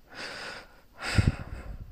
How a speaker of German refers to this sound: Was ich auch immer sehr, sehr, sehr toll finde, ist mir selber zuzuhören, wenn ich atme.